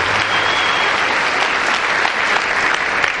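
Steady, dense audience applause fills the whole clip, a continuous wash of many hands clapping at an even loudness with no voices standing out.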